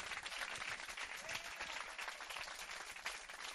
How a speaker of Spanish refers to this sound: Si van a aplaudir, háganlo duro. Si no, no.